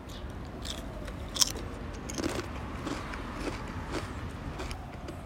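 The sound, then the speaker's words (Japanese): Someone crunches potato chips, tasting the fifth sample in a potato chip taste comparison: one sharp, crisp bite followed by a run of irregular, crackly chewing crunches over a faint background hiss, with no talking. “じゃあ5つ目食べてみますよ”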